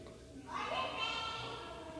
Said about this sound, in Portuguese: Ai, vai começar de novo essas crianças gritando. Então, é, essas crianças ficam fazendo barulho, eu fico um pouco de raiva porque fica difícil gravar nesse, em tais condições.